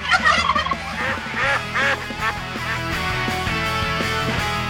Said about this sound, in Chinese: 这个时候就该我们的农村三霸上场了，是吧？大鹅、公鸡还有土狗啊，土狗你就算了，你们俩上！